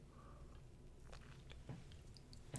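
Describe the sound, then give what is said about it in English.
Someone takes a sip of coffee, with quiet slurping, a few wet mouth clicks and a swallow over a low steady hum, no talking. “let me take a sip of my coffee.”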